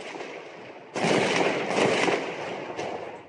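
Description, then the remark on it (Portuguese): A sudden eruption of dense, overlapping gunfire during an armed invasion of a community off Avenida Brasil in Rio de Janeiro, Brazil, in spring 2016, many shots blurring into a loud continuous crackle with a few sharper bursts, with no voices. “Foi muito tiro.”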